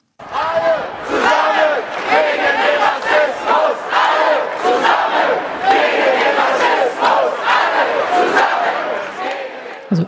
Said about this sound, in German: Und wir ähm, starten vielleicht noch mal mit, mit einem Ton von einer Demonstration zu dem Thema Rassismus, über das wir jetzt schon, das wir jetzt schon häufiger angetippt haben.